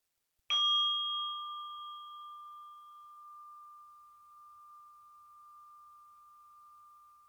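A single meditation bell is struck once, clear, its bright tone ringing out and slowly fading in a long, sustained hum with no voices.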